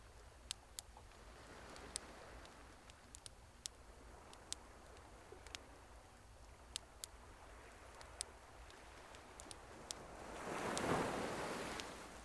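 Steady wash of sea surf rolling onto a shore at night, with one wave swelling louder near the end, while sharp, scattered crackles and pops from a bonfire punctuate the background.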